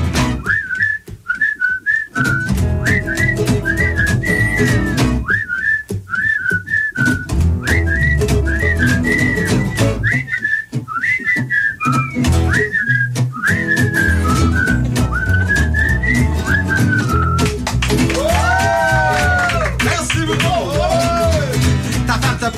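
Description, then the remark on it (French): A bright whistled melody carries the tune in short, lilting phrases over a full instrumental backing, ending with a few swooping, sliding whistle notes. “Attention, solo siffleux.”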